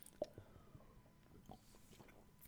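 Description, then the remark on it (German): Quiet sips of beer after a toast, with soft wet mouth sounds and a couple of faint swallowing clicks, spaced out over a couple of seconds with no talking. “Kennst du das, wenn du den ersten Schluck nimmst und bist so, wieso habe ich nicht schon den ganzen Tag Bier getrunken?”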